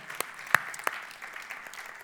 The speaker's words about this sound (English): Would you just give us a wave if that's you? Come on, let's give a cheer to these precious people. Wonderful.